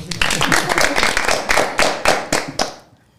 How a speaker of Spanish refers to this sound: Sí, el primero de todos los partidos y el primer podcast del PRM también. Eso hay que decirlo también. O sea que felicidades para ustedes. Muchas gracias. Un aplauso por eso.